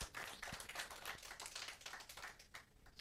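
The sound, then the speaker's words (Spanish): A crowd applauding steadily, many hands clapping at once in a dense, crackling wash that holds for a few seconds without any voices over it. “Y si lo vas a aplaudir, apláudelo de verdad, vamos. Si lo vas a aplaudir, apláudelo bien.”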